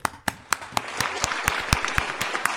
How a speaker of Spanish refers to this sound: Venga, y como he acabado, un aplauso. Vamos, a ver, no se oye, ¿no? Un aplauso.